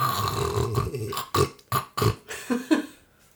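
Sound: voice imitating snoring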